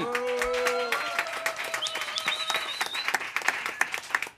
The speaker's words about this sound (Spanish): Un aplauso, por favor.